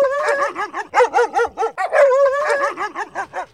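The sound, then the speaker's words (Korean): A sample recording of a dog barking, played during a radio call-in contest: a rapid, steady string of over a dozen high-pitched, yappy barks, each with a rising-falling tone, with one longer drawn-out yelp midway. No one speaks. “자, 개 짖는 소리 준비해 주세요.”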